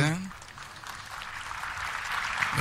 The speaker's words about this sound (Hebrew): מחיאות כפיים, חיבוקים. הבטחתי לכם מחיאות כפיים, זה חוזר על עצמו, וזה מרגש כל פעם מחדש.